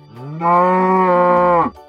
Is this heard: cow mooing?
yes